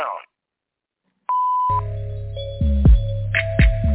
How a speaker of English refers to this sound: available to take your call. Please leave a message after the tone.